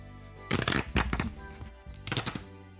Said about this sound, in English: How did that sound? Great. Now that I've torn off the first page, so I'll read it.